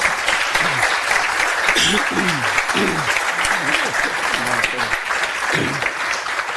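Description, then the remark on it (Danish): Sustained audience applause, a dense steady wash of many hands clapping at even loudness for several seconds, with a few faint voices murmuring underneath, at the live stage of Naturmødet in Hirtals during a live radio broadcast. “Og alt dette klapperi, øh, skal jeg sige til jer lytter øh, derude, øh, det er fordi vi laver live radio her fra Naturmødet i Hirtals, øh, fra live-scenen.”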